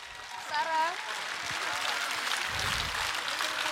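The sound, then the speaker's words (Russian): An audience claps steadily for several seconds as child performers come out, a dense, even wash of applause. Near the start, one voice calls out a brief rising shout over the clapping. “Знаете, Детям мне... нужны ваши аплодисменты.”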